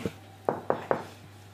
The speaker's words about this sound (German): Dann müssen wir jetzt aber klopfen, weil wenn er gerade am Aufnehmen ist, dürfen wir nicht stören.